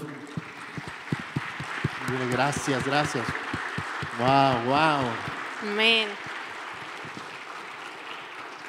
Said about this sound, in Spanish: Mm, ¿Por qué no le aplaudes ahí al Señor